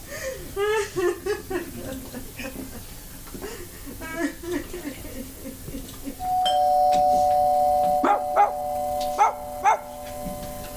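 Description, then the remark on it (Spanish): A dog yips and barks in short bursts, then a steady electronic doorbell chime sounds for several seconds, its held tone punctuated by a few more sharp barks. “Que están llamando a la puerta.”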